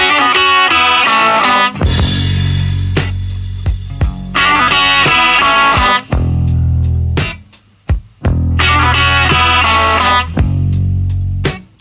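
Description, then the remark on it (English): A loud rock song, the last track on side one of an album, plays continuously, with a chugging, distorted guitar riff, slap echo on the vocal, heavy bass and steady pounding drums, punctuated by a few sharp breaks near the end. “with that, that guitar riff and the slap echo, on the vocal.”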